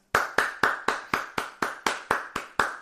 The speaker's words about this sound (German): Ja, richtig, es geht um Klatschen und zwar für die Pflege.